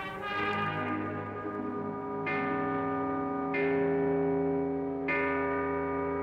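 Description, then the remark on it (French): A huge, deep bell, made to ring by a man hanging by his feet, tolls slowly and loudly, struck about four times at uneven intervals, each stroke's rich metallic hum swelling and overlapping the long resonant decay of the previous one. “je me disais que l'homme pendu par les pieds, euh, qui sert à faire vibrer cette énorme cloche, ça peut être Sternberg lui-même.”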